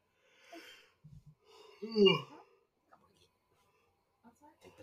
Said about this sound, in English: Oh Christ alive, big yawn. Oh yeah, freaking exhausted.